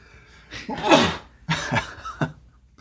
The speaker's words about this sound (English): Sorry, I sneezed, I'm dying.